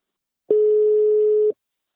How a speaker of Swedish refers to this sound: Nu tar vi en kort paus och ringer upp min samarbetspartner Invacare.